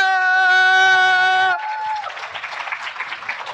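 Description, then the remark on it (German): A sustained, droning tone cuts off after a moment and gives way to steady audience applause for the guests at an event, a dense crackle of many hands clapping together that carries on to the end. “Und nochmal einen fetten Applaus für unsere Gäste!”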